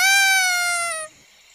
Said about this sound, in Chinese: 好像是小丑哨子的声音哎。是谁发出那个声音的？Tico，那是 Tico，他在吹小丑哨子。